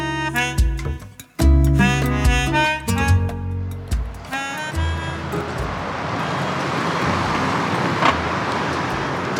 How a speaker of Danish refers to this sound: Der er en viadukt her. Toget kører, som I måske kan høre, lige over mit hoved.